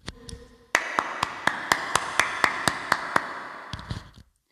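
A steady, fairly quick run of about a dozen hand claps, each ringing out with a noticeable echo that fills the gaps between them, with a few softer knocks before and after.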